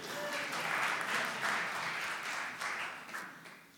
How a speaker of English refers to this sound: a round of applause here